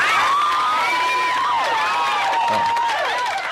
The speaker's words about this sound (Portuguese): Palmas no chat. Palmas no chat. Bota o efeito de palma aí,